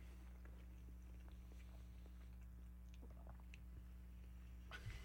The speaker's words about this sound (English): Sorry for the chewing sounds, ladies and gentlemen.